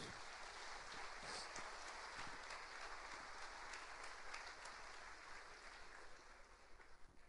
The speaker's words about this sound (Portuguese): Portanto, nós vamos aplaudi-los agora, no nome de Jesus.